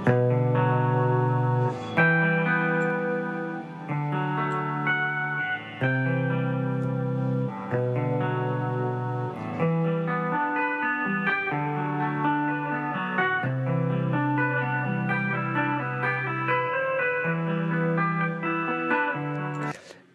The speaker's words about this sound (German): Das heißt halt The World's Largest Guitar Pedalboard, World Record ähm, findet man sehr, sehr easy. Ich zeige nur mal einen ganz kleinen Tipp, wo er am Anfang so Fingertapping macht, ja. Mhm. Das ist ein guter Klang.